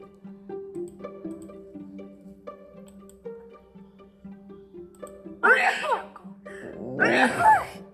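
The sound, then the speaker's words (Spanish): Over soft, sustained musical tones, a voice acts out a big, violent sneeze: a breathy windup followed by a loud, explosive burst. “Estornuda con tanta violencia que ducha a todos los demás animales.”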